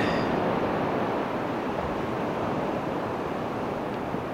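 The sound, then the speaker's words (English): Recorded ocean waves play from an Alexa smart speaker via Amazon Music for 30 seconds as a continuous, fairly loud rushing wash of surf, steady throughout without distinct breaks between swells, and no voices. “Alexa, play ocean sounds for 30 seconds.”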